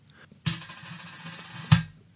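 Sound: coin being tossed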